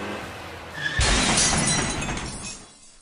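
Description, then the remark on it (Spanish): A sudden loud crash of a speeding car: a heavy impact followed by a long burst of shattering, tinkling glass that lasts over a second before fading out. No voices are heard. “Juan, baja la velocidad, vamos a chocar.”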